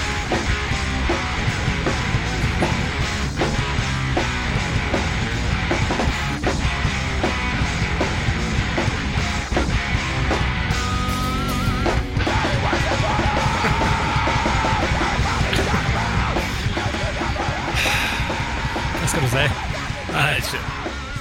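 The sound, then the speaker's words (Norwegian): A loud, dense cover version of a song plays continuously, with raucous, shouted vocals over a busy, full-band backing that stays at a steady high level throughout. “Nei, vi er altfor flinke til å covre denne på vanlig måte. Vi gjør vår vri, så du får bare høre litt på dette her”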